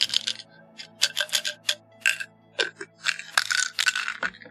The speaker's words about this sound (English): I hear Advil. yes, you do. yes, you do. How did I know it was Advil? Because we're recording. we're recording, and I can hear a pill bottle rattling. And I'm like, that's Advil.